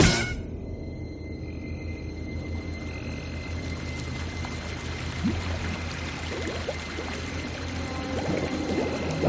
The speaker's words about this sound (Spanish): un desagüe está echando agua en un estanque.